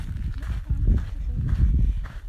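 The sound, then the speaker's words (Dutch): Footsteps crunch steadily along an outdoor path as people walk back to the car, several even strides over a low rumbling background. “En we lopen lekker weer naar de auto.”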